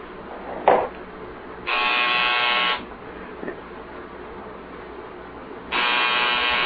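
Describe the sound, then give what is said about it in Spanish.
A doorbell buzzer sounds twice, each a steady, harsh electric buzz lasting about a second, with a short knock-like thump before the first and a quiet gap between them. “Eh, eh a la puerta, hija.”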